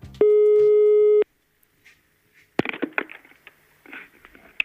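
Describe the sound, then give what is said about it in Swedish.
A single loud, steady telephone ringing tone lasts about a second, followed by a short pause and then a burst of clattering, rustling handset noise as the line is picked up. “Och den här personens pappa ringer nu.”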